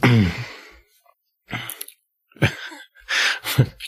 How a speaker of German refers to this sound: Also mein, mein Niesen ist, also das habe ich von meinem Vater gehabt, das Niesen tatsächlich.